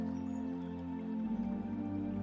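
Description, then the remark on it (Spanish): Soft, steady water noise of a small river with calm, crystal-clear water flowing continuously throughout, with a low sustained hum beneath it and no voices. “el sonido de sus aguas te produce una agradable sensación de bienestar. Escúchalo.”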